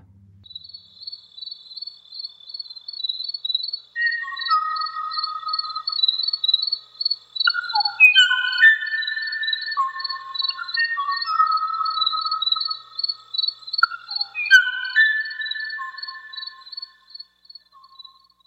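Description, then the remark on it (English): A Kauaʻi ʻōʻō sings a series of clear, hollow whistled notes in short repeated phrases, set against a steady high chirring of insects throughout; no one speaks. “And here, the sounds of the Kawaio bird.”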